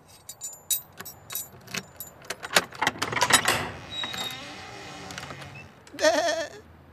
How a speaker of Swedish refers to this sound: Nu, nu låser vi upp dörren, men kom ihåg att vara tyst.